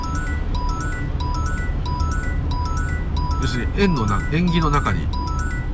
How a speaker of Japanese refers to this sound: 今のピコンピコンピコンってあの車捕まえるレーダーを発見する音ですけどこういうのは聞こえたりさっき聞こえなかったですもんね